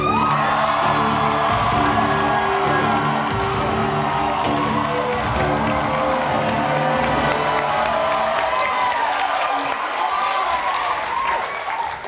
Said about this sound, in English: Did you ever think, as a lawyer, one day people would be cheering for you when you walked into a room?